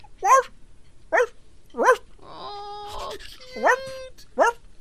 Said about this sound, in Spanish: Oigan, los ladridos de un perro despertaron a su amo del coma inducido. Sí, el perro y fue, lo llevaron al hospital donde estaba su eh, dueño en un ah. coma inducido. El perro fue y estaba a un ladito.